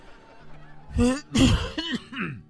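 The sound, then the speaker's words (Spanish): A few rough coughs in quick succession, loud, harsh bursts with a hoarse, voiced edge, following a quiet stretch with a faint low hum. “¿Qué andas tosiendo, querido hermano, como el brujo menor?”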